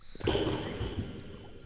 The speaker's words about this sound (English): At that very moment, a clumsy toad falls into the water.